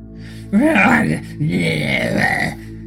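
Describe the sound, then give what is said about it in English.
A voice growls like a gremlin in two loud, guttural bursts: a short rising-and-falling snarl, then a longer rumbling growl with wavering pitch. No words are spoken. “growled the gremlin, baring its sharp white teeth.”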